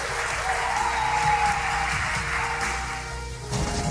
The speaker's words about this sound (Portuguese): Então vocês realmente fazem parte dessa família paranormal. vamos dar um aplauso para a família paranormal.